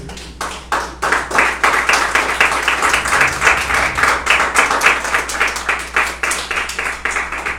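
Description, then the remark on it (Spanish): An audience applauds the Lord during a church service, many hands clapping together in a dense, bright wash with a loose rhythmic pulse, sustained and loud throughout with no voices standing out. “Dele ofrenda de palmas al Señor, pues.”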